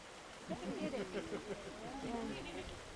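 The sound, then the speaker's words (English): A steady wash of Tar Creek water in Miami, northeast Oklahoma, flows in the background where it winds between a disc golf course and a nursing home, while people standing in the water talk over the constant, moderate rush of the stream. “Standing in the water as it winds between a disc golf course and a nursing home,”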